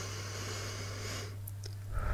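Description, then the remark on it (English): A soft, steady inhale through the nose into the belly lasts just over a second, quiet, then fades into near silence with a faint low hum underneath. “We breathe in through our nose, into our belly,”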